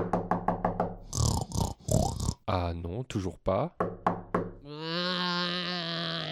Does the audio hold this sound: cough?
no